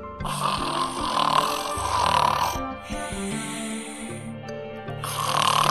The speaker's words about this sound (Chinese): 而是一只小小的尖嘴鼠。它穿着粉红色的芭蕾舞裙，从小脑壳里发出一声又一声。震耳欲聋的呼噜声，